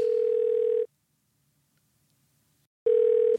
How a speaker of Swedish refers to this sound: Jajamän, nu ringer det här.